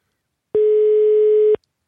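A single steady telephone ringback tone sounds for about one second, a clear, even electronic hum heard alone with silence before and after, as when waiting for a call to be answered.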